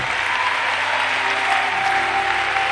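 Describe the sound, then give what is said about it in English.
An audience applauding steadily, a dense wash of many hands clapping at a constant loudness throughout, with no pauses and no voices standing out. “If you're, if you're not clapping, there's something wrong with you.”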